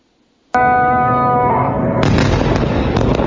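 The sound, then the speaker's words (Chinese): After a moment of quiet, a sudden loud blast from an Israeli military airstrike on Lebanon and the Gaza Strip in the dark early hours of Friday erupts into a sustained roar with a ringing tone, then a second heavy burst follows and the rumble continues, with no voices. “爆炸火光划破黑暗天际，以色列军方周五凌晨持续空袭黎巴嫩和加萨走廊，报复巴勒斯坦激进武装团体哈马斯用火箭弹攻击以色列。”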